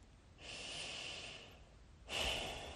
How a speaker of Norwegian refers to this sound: Så inviterer jeg deg til å legge begge hendene på magen. Gjerne liksom rundt navlen, at tommelfinger og pekefinger møter hverandre som en sånn trekant. Og bare ta noen rolige pust inn og ut gjennom nesen i ditt tempo.